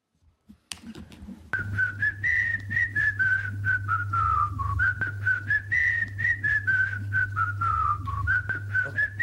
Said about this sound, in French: On prévu de mettre les sifflets avant, les paroles après.